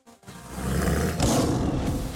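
A lion's roar bursts in after a brief low grunt, one loud, sustained, rumbling bellow lasting about two seconds, full with no voices.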